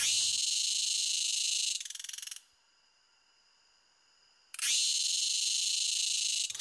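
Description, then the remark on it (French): A Thai cicada sings in loud, harsh high-pitched buzzing bursts. A quieter, thinner whine briefly breaks the song before the full rasping buzz returns, with no voices. “C'est une euh, cigale thaïlandaise.”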